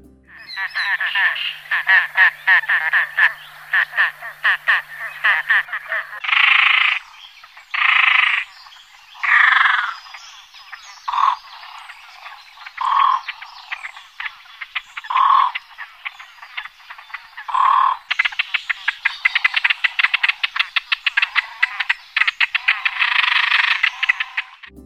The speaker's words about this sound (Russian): В общем-то, для нас с вами кажется совсем не сильно крупная птица, но так как вся группа еще мельче, то она у нас большая поганка.